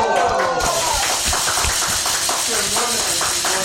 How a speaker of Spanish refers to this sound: Aplausos a Bo Concept. ¡Bravo!